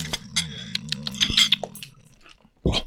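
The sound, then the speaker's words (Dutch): Crunchy chewing of a bite of snack, with irregular crisp bites and mouth noises over about three seconds, ending in a louder crunch. “We nemen een hapje op jou.”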